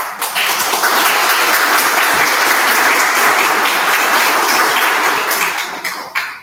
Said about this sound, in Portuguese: Como eu sempre digo, o aplauso não é para mim, mas aceito em nome de Neio Lúcio. Muito obrigada.